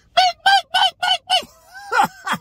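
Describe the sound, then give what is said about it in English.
A voice mimics a car's high-pitched seatbelt warning alarm, which sounds when seat pressure tells the car's computer system the seatbelt is not on: five quick, evenly spaced nasal beeps, then a brief wavering held tone and two more beeps. “if there's a certain amount of pressure on there, it's telling the computer system in the car, you do not have your seatbelt on, and it will go bing, and that noise will get irritated and then it will go on high pitch and then it will just go”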